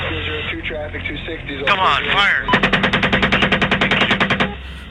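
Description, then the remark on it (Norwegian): A long, rapid burst of heavy automatic gunfire from a helicopter firing heavy weapons at people, roughly twenty evenly spaced loud shots over two seconds, follows brief muffled radio-like voices and chatter of soldiers urging each other to shoot. “Videre så ser man personer som beveger seg, og helikopteret skyter de her personene med kraftige våpen.”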